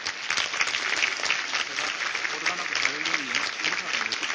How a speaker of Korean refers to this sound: 박수 한번 하겠습니다.